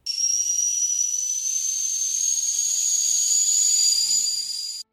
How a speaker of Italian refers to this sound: Per esempio la sveglia d'acqua, utilizzata da niente po' po di meno che Platone, aveva dei tubicini finissimi che arrivati ad una certa ora producevano un forte sibilo, come quello di un bollitore per il tè per intenderci.